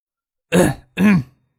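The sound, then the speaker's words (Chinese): Two short, throaty coughs in quick succession from a man at a bar counter, each a rough voiced burst with a brief pause between them, fairly loud with no talking around them. “杜飞停下手，差点没接住酒壶，咳嗽了两声，朝张克挤起眼睛。”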